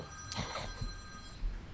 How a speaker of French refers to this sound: Ah, il y a un téléphone qui sonne. Je vais répondre.